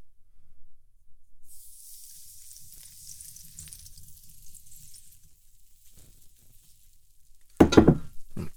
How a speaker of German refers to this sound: Jetzt schütte ich hier mal ein bisschen Wasser drüber. Wenn ein bisschen was daneben geht, es geht nur auf meine Hand oder aus Holz.